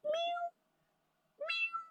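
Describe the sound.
A person imitates a kitten with two short, high mewing calls separated by a brief pause, fairly loud, with no other sounds around them.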